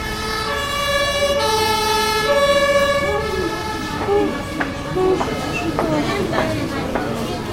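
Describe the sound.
A two-tone fire engine siren wails steadily as the fire engine forces its way through a traffic jam on a busy main road that feeds a motorway, alternating pitches over rumbling traffic noise, then fades somewhat as scattered clanks and a brief voice-like sound break in near the end.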